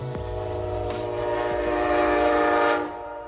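A train horn blares in a long, sustained chord over a low rumble, growing louder as the train draws near, then cutting off abruptly just before the end.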